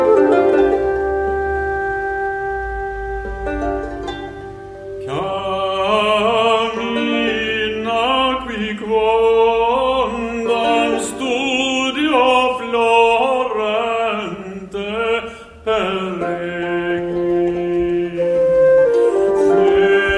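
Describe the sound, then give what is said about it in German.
A medieval song, about 90 percent reconstructed from an 11th-century manuscript, plays, opening on a sustained droning tone before a flowing melody with fuller accompaniment enters, continuing steadily and fairly loud with no talking. “hätte gedacht, dass sie im Mittelalter irgendwie anders gesungen haben.”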